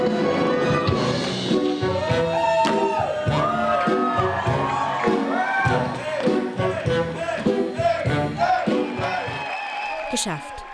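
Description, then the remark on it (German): An audience cheers loudly and continuously after a hip-hop dance medley that blends classical music and hip-hop, with many overlapping shouts and whoops rising and falling over a steady roar of voices for about ten seconds. “Die Erleichterung ist den Hip-Hopperinnen anzusehen und das Publikum ist begeistert vom ersten Teil.”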